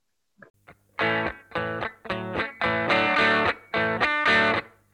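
A rock song plays loudly, with heavily distorted electric guitar chords struck in punchy, rhythmic bursts over a steady low bass drone. There is no singing or talking.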